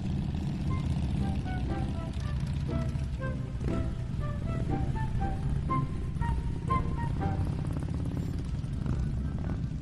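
A loud, steady roar of a group of big Harley motorcycles rumbles continuously, a dense low growl with higher tonal whines layered on top, never fading out.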